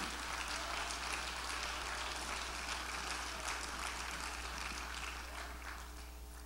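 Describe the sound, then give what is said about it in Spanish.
A church audience applauds steadily for its children's ministry, a dense wash of many hands clapping that holds for several seconds before easing slightly at the end, with no voices heard. “Sí, denle un aplauso fuerte.”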